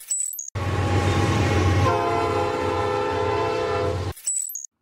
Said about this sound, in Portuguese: Eu morei num apartamento que era do lado da linha de um trem, onde o trem buzinava de 15 em 15 minutos.